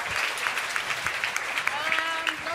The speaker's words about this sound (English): Thank you, though. That's very nice. Uh, round of applause.